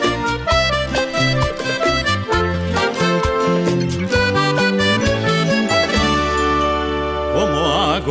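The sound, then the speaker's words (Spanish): A cumbia song plays loud, with a bouncing bass line, steady percussion and bright melodic accompaniment, settling into sustained chords with a wavering, vibrato-like melody at the end. “Mire, escuche este tema, por favor.”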